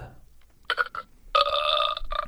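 A loud burp that starts with a short, choppy belch, pauses, then rolls into a longer, drawn-out rumble with a buzzy, tonal quality. No one talks over it.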